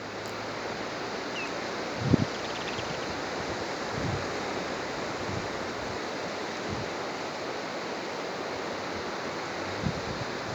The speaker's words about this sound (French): toutes ces vagues euh, qui viennent vers moi, qui apportent, qui viennent vers le rivage, vers la plage, qui viennent apporter quelque chose disparaître.